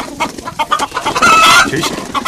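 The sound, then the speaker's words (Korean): Someone imitates a chicken live with their own voice instead of a recorded sound effect: a quick string of clucks and squawks, rising into a louder, strained cackle midway before trailing off into shorter clucks. “닭소리 있었는데 이렇게 쌩으로 내게 한 거야 지금.”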